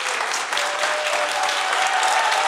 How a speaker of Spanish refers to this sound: Le Damos otro aplauso con mucho cariño al doctor Eduardo Calixto.